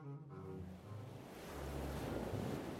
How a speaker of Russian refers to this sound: Волны в море заклокотали и забушевали, как в кипящем котле